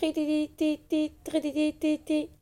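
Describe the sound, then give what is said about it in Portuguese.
A person vocally imitates the receipt-printing machines heard in a café, making about six quick, buzzy, nasal bursts in a steady stuttering rhythm, fairly loud with no other sounds around it. “das máquinas de imprimir recibos.”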